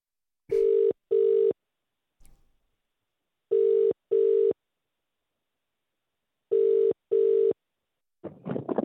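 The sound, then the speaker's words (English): A telephone ringback tone plays in clear double pulses, three paired buzzes separated by pauses, steady and fairly loud, followed by a brief burst of noise as the line seems to connect. “Let's let's ring. Make the first call.”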